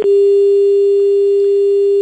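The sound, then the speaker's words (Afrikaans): A telephone line tone after a call drops, as the line breaks during a call with a guest on a radio program: one steady, unbroken mid-pitched hum held at constant loudness for about two seconds, with no voices. “oh, daar verdwyn dokter Tessa nou na breek die lyn.”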